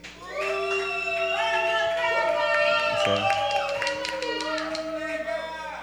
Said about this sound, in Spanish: Fueron abucheo mayoría, pero valen.